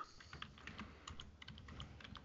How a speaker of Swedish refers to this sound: Nu hör jag att du skriver.